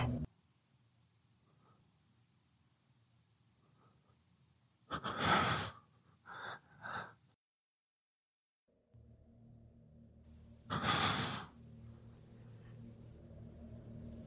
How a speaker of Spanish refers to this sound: Yo escuchaba mi propia respiración, agitada, asustada.